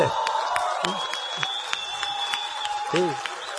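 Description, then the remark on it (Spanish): An audience applauds steadily, dense clapping throughout, with a few scattered voices and calls rising briefly above it. “Usted, ustedes le aplauden porque la conocen ahora.”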